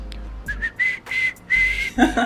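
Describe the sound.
A person whistles a series of short, steady-pitched notes, four or five quick bursts in a row, fairly loud, imitating the almost-whistle filler sound a professor used to make while thinking of the next thing to say, with no talking.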